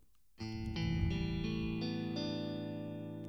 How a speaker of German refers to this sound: Kann dem noch ein bisschen mehr Hall dazugeben und so eine Geschichten. Also, jetzt haben wir hier eine etwas, ja, eine Clean-Gitarre, also ein bisschen